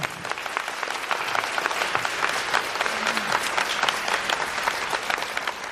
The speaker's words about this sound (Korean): 자, 코로나 의료진들에게 우리 모두 박수 한번 보내겠습니다.